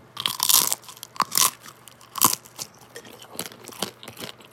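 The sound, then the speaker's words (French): Loud crunching bites into a crispy pita, several sharp bursts in the first half followed by softer chewing crackles, with no talking. “le pita, il est croustillant.”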